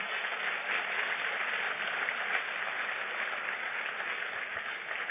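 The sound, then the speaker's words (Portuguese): A crowd applauds God steadily for about five seconds, a dense, even wash of many hands clapping at once with no voices rising above it. “Vamos aplaudir o forte porque ele é mesmo.”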